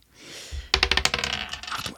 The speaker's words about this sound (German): ihr dürft beide einmal würfeln ähm, und ihr dürft beide einmal etwas zu sagen zu jeder Zahl.